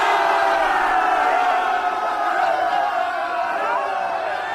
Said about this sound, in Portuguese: Uma salva de palmas.